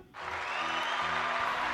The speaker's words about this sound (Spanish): Le damos un aplauso.